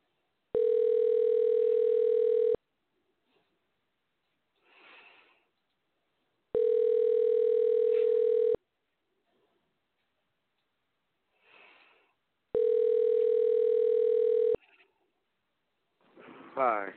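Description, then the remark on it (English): A telephone ringback tone purrs three times, each steady two-second burst followed by a longer pause, with soft breathing noises in the gaps and a voice starting right at the end. “see if he actually answers. Probably not. Probably have to leave a voicemail, but we'll see.”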